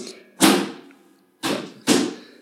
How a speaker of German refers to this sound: klopft gerade auf dem PC rum.